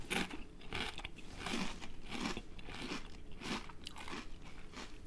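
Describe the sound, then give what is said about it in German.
Loud crunching of Spanish truffle potato chips being bitten and chewed, with repeated crisp bursts roughly every half second and no talking. “Und ähm, weil Spanien mich ja irgendwie wieder auf das Wermut trinken brachte, sind das spanische Trüffelchips.”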